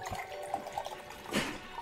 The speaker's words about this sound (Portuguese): Ela me serve um copo d'água.